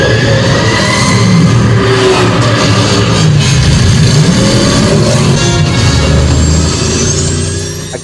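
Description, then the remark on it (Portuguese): The Batmobile's powerful engine roars and revs loudly and continuously in a film, with a high whining tone rising over the deep rumble like an airplane jet turbine spooling up, fading slightly at the end. “E faz o barulho igualzinho de uma turbina de avião.”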